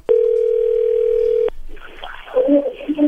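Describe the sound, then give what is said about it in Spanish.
A steady, mid-pitched telephone ringing tone as a call is dialed holds loudly for about a second and a half, then cuts off, followed by faint, muffled voices and line noise. “Bien, ahora vamos a marcarle a ver si te manda los chocolates a ti o se los manda alguien más, ¿ok?”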